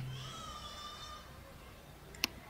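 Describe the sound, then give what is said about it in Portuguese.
A pet cat gives a faint, drawn-out meow of about a second, followed by near-silence and a single sharp click. “Ó, meu bebê começou até a chorar aqui.”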